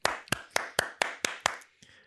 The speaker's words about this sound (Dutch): Matthijs Koiker, dames en heren, applaus.